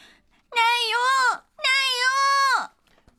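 A two-year-old girl wails loudly from her stroller in a large shopping mall in two long, strained cries, each lasting about a second and sliding down in pitch at the end, separated by a brief gasp.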